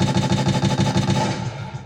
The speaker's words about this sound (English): Boy, them gunshots. New speakers, them, new mics.